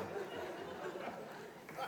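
A crowd lets out a low, drawn-out collective groan, a steady murmur of many voices that holds for a couple of seconds with small swells and no single speaker standing out.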